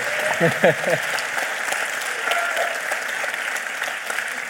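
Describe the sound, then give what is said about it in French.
A live audience at the Forum des Images applauds steadily, a dense wash of clapping that holds for several seconds, with a brief voice or cheer rising near the start. “Salut c'est Ciné, votre rendez-vous avec le cinéma dans une configuration tout à fait singulière puisque nous sommes, vous l'avez entendu, en public au Forum des Images, invités par nos camarades de Panique et de Chroma”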